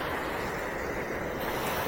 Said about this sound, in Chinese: 我不知道现在的你有没有听到大海的声音呢？因为我现在就站在大海边上